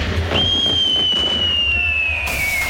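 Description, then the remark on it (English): A firework at a Bonfire Night (5th of November) fireworks musical display lets out a high, steady whistle that rises suddenly and holds for over two seconds, sliding slightly lower in pitch as it goes, over a low rumbling background with no clear bang. “Remember, remember the 5th of November with an award winning fireworks musical display.”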